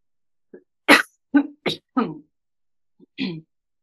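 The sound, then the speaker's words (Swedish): A sharp sneeze bursts out, surrounded by a few short breathy gasps and snorts, all within a few seconds and followed by quiet. “Prosit!”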